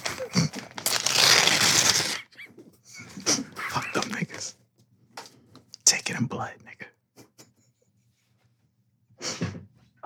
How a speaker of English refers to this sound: This is the sound of ripping up past due bills. Mm. I'm not paying that shit.